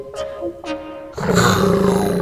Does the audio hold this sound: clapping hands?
no